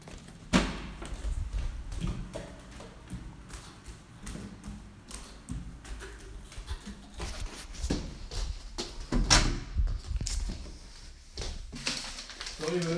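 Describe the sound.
The front door of a home is handled and opened: a series of sharp clicks, taps and dull thumps over about thirteen seconds, with muffled voices talking in the background.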